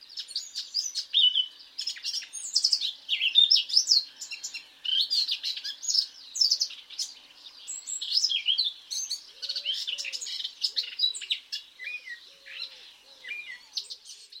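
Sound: wren song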